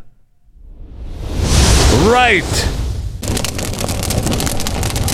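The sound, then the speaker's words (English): A firework whooshes upward with a whistling swoop, then bursts into a loud, crackling explosion that keeps sizzling; a voice briefly speaks near the end. “No fireworks. Is this America or what? Light them up.”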